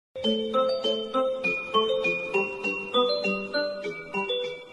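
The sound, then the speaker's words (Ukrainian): A bright, chiming instrumental intro of a patriotic song, with tinkling bell-like notes struck in a steady, regular rhythm over sustained lower tones, clear and moderately loud, no voices. “Я думаю, що можемо включити і подивитися, наскільки класно і наскільки добре воно поєднується з тим, що ми маємо зараз.”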